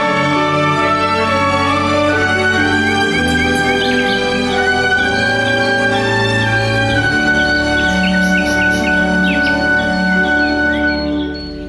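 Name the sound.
birds chirping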